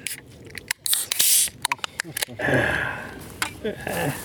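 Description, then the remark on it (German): The cap of a buttermilk (acidophilus milk) bottle being unscrewed: a quick series of scraping twists and sharp clicks with short hissy bursts, while faint voices murmur in the background. “Was Sie hörten, war ein Buttermilch-Aufschraubgeräusch.”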